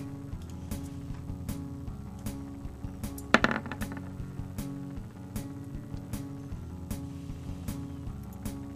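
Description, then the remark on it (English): A brief clatter of dice tumbling onto a hard table surface for a hear noise roll during a game, a quick rattling burst near the middle, heard over steady background music with a regular beat; no one speaks. “Uh, Udo and Neris, please make me a hear noise roll.”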